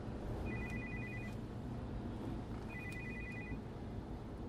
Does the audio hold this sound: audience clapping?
no